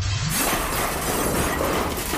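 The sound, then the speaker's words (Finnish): A lower window is shot with a gun and its glass shatters loudly, a dense burst of breaking and crashing shards that keeps rattling for a couple of seconds, with no voices. “Samalla kun Jete putoaa letkuvyötäröllään sirpaleiden kanssa, hän ampuu alemman ikkunan, jota kohti hän on heilahtamassa.”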